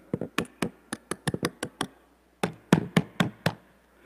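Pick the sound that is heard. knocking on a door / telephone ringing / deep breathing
knocking on a door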